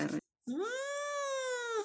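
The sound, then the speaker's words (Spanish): A cat lets out one long, loud yowl lasting over a second, after a brief burst of sound and a short pause; the cat is yowling on its own. “Estaba aullando solo.”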